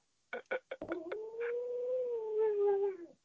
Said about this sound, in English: Oh, can you hear that woo wooing then? I did, yeah. Uh, yeah. What uh, was that? It is um, an Alaskan mamalute called Chloe. A what? An Alaskan mamalute, like a, like a husky, but um, from Alaska. Oh, so it's a dog? Yeah.